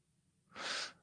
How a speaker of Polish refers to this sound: Aha, bo tata chrapie. To zatkaj mu nos.